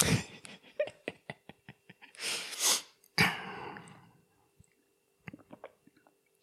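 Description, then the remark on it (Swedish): Noisy slurps of someone sipping coffee, two airy drawn-in bursts in the middle, surrounded by small clicks and mouth noises from the cup and lips, with no talking. “Nej men jag måste ha en klunk till.”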